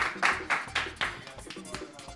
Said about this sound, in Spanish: Un aplauso para ellos también.